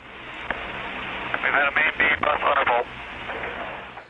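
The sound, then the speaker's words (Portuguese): Muffled television sound of the Sessão da Tarde programme plays in the background, with tinny, thin-sounding voices rising briefly in the middle before fading back to a low murmur. “Pessoal, se vazar um áudio aí do fundo é porque tá passando sessão da tarde ali na TV.”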